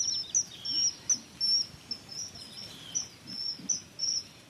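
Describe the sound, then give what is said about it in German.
High, thin piping calls of a kingfisher repeat in short bursts of two or three notes, played quietly through a small Bluetooth speaker set on a tree trunk over the water to lure a kingfisher, over a low outdoor background hum, with no voices. “Sie spielt über die Box das Zwitschern des Eisvogels ab.”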